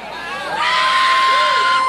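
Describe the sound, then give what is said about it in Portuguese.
An audience at a religious service erupts in loud, sustained shouting and cheering, a dense wall of high-pitched voices and whoops that swells after a brief moment and holds steady to the end, as the preacher urges them to release a shout. “Ei, libera esse grito aí, meu amigo.”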